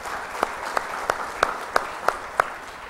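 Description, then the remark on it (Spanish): A church audience applauds God, with sharp claps landing together in a steady, even beat, about seven accented hits over a continuous wash of scattered clapping, and no talking. “Dele un fuerte aplauso a nuestro Dios, por favor.”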